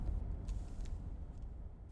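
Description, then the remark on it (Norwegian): A car's low engine rumble and tyre noise roll along steadily, a dull continuous drone with faint higher hiss, as the vehicle slowly drives into a parking lot with no one speaking. “Det står allerede en ung fyr med en PC i sekken og venter da jeg kjører inn på parkeringsplassen.”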